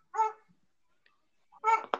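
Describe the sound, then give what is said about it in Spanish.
Two short, sharp barks from dogs, separated by a pause of more than a second, moderately loud, with no talking around them. “Como de que ladren los perros en pleno podcast.”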